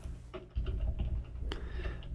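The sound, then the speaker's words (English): Someone types on a new Corsair K55 computer keyboard, giving a loose, irregular run of soft key clicks with one sharper tap, over a low background rumble. No one speaks. “I, I got a Corsair K55.”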